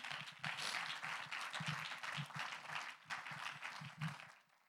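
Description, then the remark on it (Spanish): An audience breaks into sustained applause for the Lord, dense overlapping clapping that swells and holds steady for several seconds before tapering off at the end, with no one speaking over it. “Un aplauso al Señor.”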